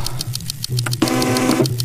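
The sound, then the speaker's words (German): A printer printing a new ID card runs, its motor whirring and clicking in a quick mechanical rhythm, rising to a steady, louder whine partway through as it feeds the card. No one speaks. “betätigst du den Drucker und du bekommst einen frischen Ausweis aus dem Drucker”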